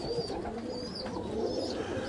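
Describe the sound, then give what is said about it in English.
A dense chorus of pigeons cooing together inside a pigeon loft, low throaty murmurs overlapping continuously with a few faint higher chirps, steady throughout. “Let me go back over here by the loft. I'm going in the loft actually.”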